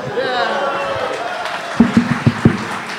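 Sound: audience applause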